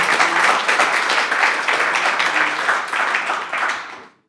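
A crowd applauds steadily for about four seconds, a dense wash of many hands clapping at once, then the clapping quickly fades out at the end.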